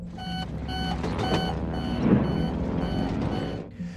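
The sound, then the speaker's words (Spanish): An aircraft's ground collision warning alarm sounds in steady, repeated electronic beeps, loud, over a continuous low mechanical rumble, ending abruptly, as the plane flies through turbulence over the Andes. “En un primer momento las turbulencias fueron material de risa para los más osados, Segundos después, la alarma de colisión en tierra de la aeronave sonó.”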